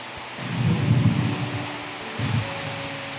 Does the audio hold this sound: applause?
no